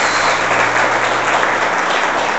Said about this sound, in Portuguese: Dê um aplauso à palavra do Senhor. Glória a Deus.